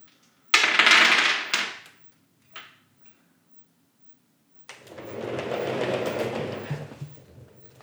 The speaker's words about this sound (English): So I just rolled all nine dice, and uh, one of them landed on top of two of them. rest of them all landed flat, unexceptionally.